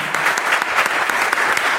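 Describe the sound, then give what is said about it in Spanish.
Steady crowd applause, dense and continuous with many hands clapping at once, fairly loud and even throughout without any voices on top. “Entonces, un aplauso para él, por favor.”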